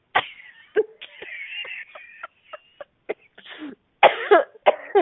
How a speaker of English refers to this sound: You're laughing oh, so hard you're coughing.